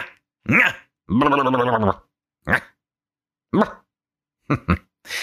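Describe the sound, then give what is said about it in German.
A person yaps like a small dog, a string of short, sharp barks with one longer, drawn-out whining howl early on, spaced irregularly and fairly loud. “So kann man einen Podcast auch anfangen, ne? Man kläfft erstmal, wie so ein Köter.”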